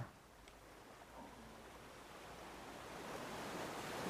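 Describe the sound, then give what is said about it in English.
Steady ocean surf washes in a broad, hissing rush, gradually swelling louder over a few seconds with no voices present. “these 10 allegedly true scary stories about the 4th of July while the sounds of waves put you at a fragile ease.”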